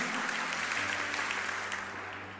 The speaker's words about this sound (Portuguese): Pode aplaudir o Senhor que é santo.